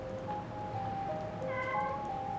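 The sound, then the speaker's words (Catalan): A cat named Misha meows in drawn-out, tonal cries, one rising wail overlapping another, moderately loud, with no one talking and a soft steady background hiss underneath. “És un miol de la Misha.”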